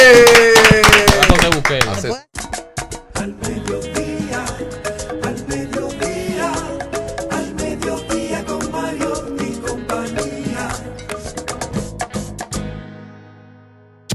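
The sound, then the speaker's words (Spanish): A descending tonal swoosh gives way to steady, dense applause: many hands clapping quickly and loudly for about ten seconds, then stopping abruptly. “Un aplauso un aplauso”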